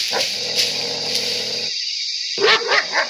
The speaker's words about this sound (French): Un singe qui aboie Mais ça alors, mais, mais un singe qui aboie, mais ça existe ça le singe qui aboie est une variété de primates arboricoles, agricoles et d'aricoles, dont les cordes vocales présentent une configuration proche de celle de certains